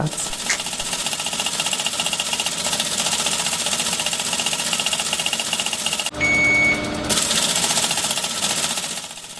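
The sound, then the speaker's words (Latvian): A teletype machine printing news in a small booth on the top floor of a radio building clatters steadily, its fast mechanical rattle running nonstop. Partway through, the chatter briefly shifts into a denser, humming burst before the rhythmic printing resumes. “Šī skaņa nepārtraukti bija dzirdama radio mājas pašā augšējā stāvā, kur atsevišķi no ziņu redakcijas darbiniekiem mazā skabūzītī teletaipa mašīna drukāja ziņas.”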